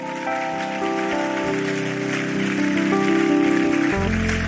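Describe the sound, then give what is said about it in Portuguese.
An audience applauds steadily in gratitude to Jesus after a worship song, a dense crackling wash of clapping that carries on throughout over sustained keyboard chords playing softly beneath, with no one speaking. “Então aplauda ele com gratidão de verdade.”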